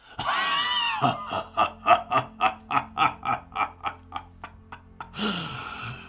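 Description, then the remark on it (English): A deep, growling demonic voice lets out a long, rhythmic cackle, about a dozen harsh pulses rising and then fading. It opens with a shrieking wail and is loud. “you just hear the cackling, the growly cackle of this voice, and it like almost vibrates your head with the ferocity of it.”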